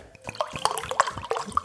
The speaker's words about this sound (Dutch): Dat is het geluid van kraanwater. Eh, ja, zonde hè?